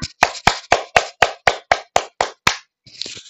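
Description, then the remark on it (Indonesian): A group's hands clap about ten times in a steady, quick, evenly spaced rhythm, loud, as everyone is asked to clap for a long time, then trail off into a brief softer patch of scattered noise. “Buat kita mau tepuk tangan, ayo coba semuanya kita tepuk tangan yang lama.”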